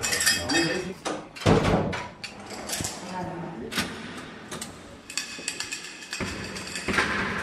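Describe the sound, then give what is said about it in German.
Metallic clinks and clanks of keys jangling in heavy prison door locks as door after door, more than six, is unlocked, passed through and locked again, with sharp bolts snapping open and shut in repeated bursts, echoing against hard surfaces. “Aufschließen, durchgehen, zuschließen. Aufschließen, durchgehen, zuschließen. Nach sechs Türen höre ich irgendwann auf mitzuzählen.”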